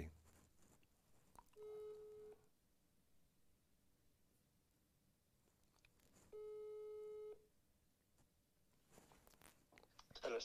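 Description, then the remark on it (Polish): Two long, steady electronic telephone ringing tones sound during an outgoing call placed to a caller during a live broadcast, each lasting about a second with a several-second pause between them, plus faint low background noise. “To był Łukasz, to został jeszcze nam Adam. I dzwonimy.”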